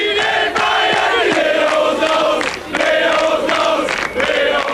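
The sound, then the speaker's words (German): A stadium crowd of football fans sings a chant in unison in early November, when Eintracht Frankfurt beat Bayern Munich 5-1, loud and sustained, with rhythmic phrases that dip briefly between lines before the massed voices surge again. “So wie Anfang November, als Eintracht Frankfurt mit 5 zu 1 gewann und die Zuschauer im Stadion mal wieder dieses ewig junge Lied anstimmten.”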